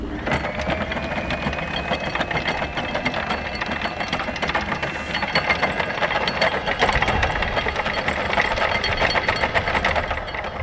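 A boat's anchor chain runs out in a fast, continuous, loud metallic clatter as the anchor is dropped in about 4 metres of water, with a steady mechanical rumble underneath and no pauses for the full length.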